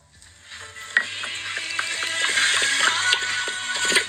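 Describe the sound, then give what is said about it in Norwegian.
A small terrier wearing a little vest noisily laps water from a cup in a stable, a steady run of wet, splashy slurps that grow louder over a few seconds, with no talking. “oh, ja, var det, det, var veldig stor drikkelyd for en liten sånn terrier.”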